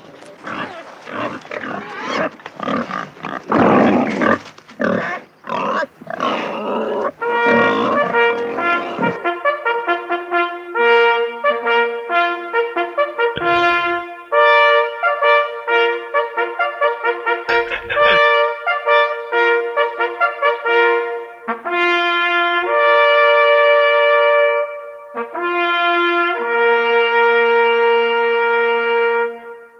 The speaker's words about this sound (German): Das war das Hornsignal für die Sau ist tot.